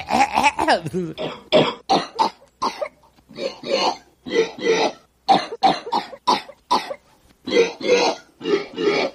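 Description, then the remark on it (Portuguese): A recorded cough, sampled and played on a keyboard as in the film Ferris Bueller's Day Off, is replayed over and over as a tune, with short, clipped bursts shifted up and down in pitch, falling into a bouncy rhythm with small gaps between notes. “Ele bota a tosse, ele grava, é verdade. E ele bota no teclado, aí ele começa a fazer uma musiquinha com a tosse dele.”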